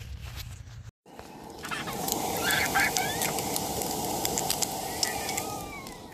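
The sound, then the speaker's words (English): Bacon sizzles steadily in a pan over a campfire in the Cohutta Wilderness in the morning, a dense, even hiss sprinkled with small pops and crackles. It runs continuously for several seconds after a brief cut near the start, with no talking. “I don't know if you guys can hear about that, but that's me frying up bacon this morning.”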